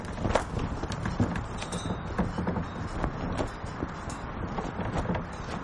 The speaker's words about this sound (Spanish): El viento mueve el toldo.